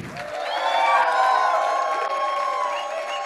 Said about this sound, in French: Est-ce qu'on peut acclamer Jésus de Nazareth, notre roi et Seigneur Est-ce qu'on peut pousser des cris de joie